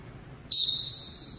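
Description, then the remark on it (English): A single sharp, shrill whistle blast rings out loudly for about half a second before trailing off, over a low background rumble. It is blown to start a wrestling training drill, signalling a wrestler to rise from the set position off his forearm into fighting position. “on the whistle will get up to his right, off of his forearm into fighting position.”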